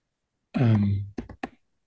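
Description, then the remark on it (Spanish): A speaker clears their throat at the microphone: one long rough voiced rasp followed by two short sharp bursts, loud, with silence around it and no talking. “Perdón que ando ya con el carraspeo”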